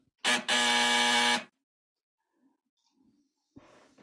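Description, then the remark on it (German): A loud electric doorbell buzzer sounds: a brief buzz, then a longer one lasting about a second. Quiet faint rustling follows, and a soft thump near the end. “Ich klingel, weil ich finde das Schlüsselloch nicht.”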